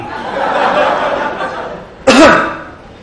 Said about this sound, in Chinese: 感情我也得咳嗽啊。